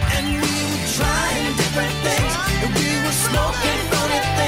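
A loud, full-band rock song plays steadily throughout, with driving drums, a heavy bass line and layered guitars and vocals, close and continuous with no talking over it.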